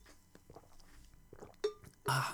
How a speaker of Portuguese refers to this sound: Mas já, já sabem que eu tenho que fazer as minhas pausazinhas para a água.